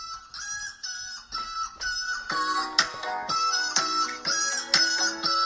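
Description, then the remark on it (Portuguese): Nasal, honking goose-like calls sound in short rhythmic bursts over a bright, steady musical backing, repeating roughly every second and fairly loud, with no one talking. “Pá, o que é que são estes gansos? Quem é que meteu gansos na merda da música”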